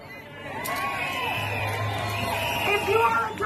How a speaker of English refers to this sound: I just want to point out she's talking about people getting hanged and the crowd's like cheering enthusiastically.